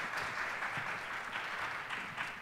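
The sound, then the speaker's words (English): An audience at a Durham Public Schools arts event claps steadily for the event's lead teacher coordinator, a dense wash of many hands sustained at an even, fairly loud level throughout, with no voices standing out. “Miss Cash, would you stand, please, and let's applaud for Miss Cash.”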